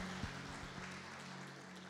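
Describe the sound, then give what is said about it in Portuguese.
An audience in a church applauding for their pastor: a steady, dense wash of many hands clapping at once, fairly soft throughout, with a low steady hum beneath and no one speaking. “Eu quero pedir uma salva de palmas pela vida do nosso pastor,”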